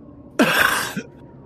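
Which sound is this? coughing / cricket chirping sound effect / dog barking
coughing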